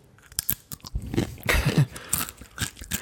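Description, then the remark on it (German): Crackly crunching as someone bites into a crisp and chews, a series of sharp brittle snaps over about three seconds with no talking. “und darauf beiße ich ganz kurz in meinen Chip.”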